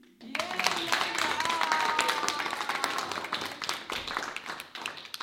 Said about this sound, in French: Nous pouvons applaudir